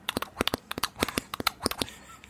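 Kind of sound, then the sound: vocal imitation, voice imitating a horse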